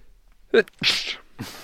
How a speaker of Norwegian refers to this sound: Jeg må nyse.